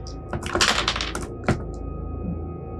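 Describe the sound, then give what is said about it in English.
A jammed door being forced without success, the door staying hopelessly stuck: a quick cluster of sharp cracking knocks and rattles, then a pause and one more hard thump, with no talking. “that door stuck. That was hopelessly jammed.”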